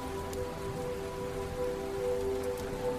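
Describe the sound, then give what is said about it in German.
Steady, even rain of a storm patters on a surface for a few seconds, a continuous soft hiss with faint scattered drops, over a quiet sustained humming tone. No thunder or voices stand out. “Hier bist du sicher und kannst dem Lied des Regens und des Sturmes zuhören.”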